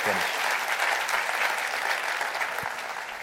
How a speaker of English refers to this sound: Clap your hands to that because that's true.